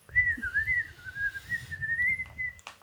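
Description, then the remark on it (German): A person whistles to a bird: one sustained, gently wavering tone for about three seconds, fairly clear over a low background rumble, with no talking. “Genau, pfeif ihm was vor und dass er ihn suchen soll.”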